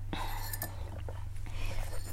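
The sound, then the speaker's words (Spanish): A few soft clinks of a cup being handled, then quiet slurping sips of coffee over a steady low hum, with no talking. “Voy a tomar Un sorbito de café.”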